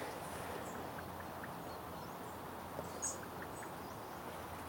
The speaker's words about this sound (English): I think it's a blackbird actually.